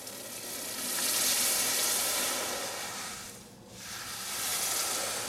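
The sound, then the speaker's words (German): A blacksmith hardens a hot, shaped steel blade by quenching it in water; the steel is a water-hardening type. A loud, steady sizzling hiss swells, dips briefly near the end, then surges again. No one speaks. “Wenn jetzt die Form soweit ist, kommt es dann wieder ins Wasser zum Härten auch.”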